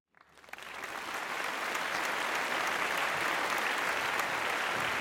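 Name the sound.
applause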